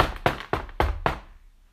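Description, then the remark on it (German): Four firm knocks on a door, evenly spaced about a quarter second apart, fairly loud with a short resonant thud after each, then silence. “Und ähm, äh, wer ist da vor meiner Tür?”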